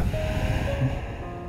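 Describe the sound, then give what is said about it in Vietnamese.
A slow, steady breath pushed out, a soft airy hiss that holds for over a second before easing off slightly, with no talking; a person breathing in and out at their normal pace during meditation. “tôi đang hít vào và thở ra với tốc độ thở hít thở bình thường của tôi”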